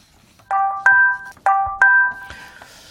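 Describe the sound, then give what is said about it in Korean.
A bright electronic text message alert chime plays two quick paired beeps, repeated twice in a steady pattern, loud with no voices, then a softer trailing tone. “자, 문자 도착음이에요.”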